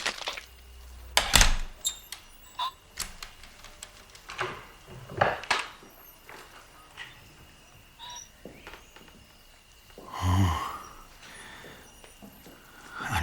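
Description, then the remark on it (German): Quiet metallic scratches and clicks of a key being carefully inserted into a door lock, followed by a soft creak and low thud as the door swings open, with a faint hiss beneath. “Der erste Detektiv schlich sich zur Tür und steckte vorsichtig den Schlüssel ins Schloss.”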